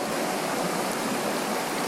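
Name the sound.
flowing river water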